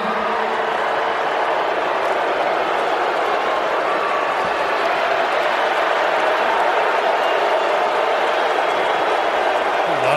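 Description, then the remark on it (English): A large crowd of Pittsburgh Steelers fans boos loudly and continuously at the mention of Tom Brady, a dense, sustained roar of many voices that holds steady for about ten seconds without letting up. “booing from Steeler fans.”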